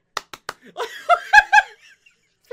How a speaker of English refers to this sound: golf clapping